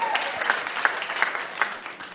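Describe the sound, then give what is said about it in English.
A short burst of audience applause, dense and steady clapping from many hands at moderate loudness, with no voices standing out over it. “Yeah, you can clap.”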